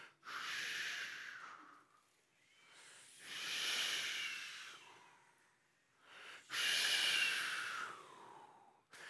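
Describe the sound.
An audience imitates distant ocean waves with long, breathy hissing swells that rise and fade three times in a slow rhythm, with brief near-silent gaps between them.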